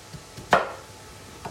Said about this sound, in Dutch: Dus, zoete patat is geschild. En dan gaan we hetzelfde doen, gewoon kleine kubusjes van snijden. Eh, ja, gewoon, laat je maar gaan. Zie maar hoe dat je ze snijdt, die kubusjes.